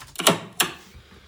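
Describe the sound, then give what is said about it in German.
A typewriter carriage slams back with a line advance: two quick, sharp mechanical clacks about a third of a second apart, fairly loud, with no voices. “Ich muss also wieder nach links den Wagen bewegen und mit Enter eine Zeile weiterdrehen.”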